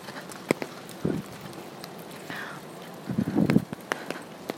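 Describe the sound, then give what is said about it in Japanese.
Light rain patters steadily outdoors while footsteps click sharply and irregularly on wet pavement as someone walks from a university toward a train station in the evening, with a couple of brief muffled thumps and no one speaking. “ただいま、えー、大学から出て今駅に向かっている最中なんですけれども雨が降っております。”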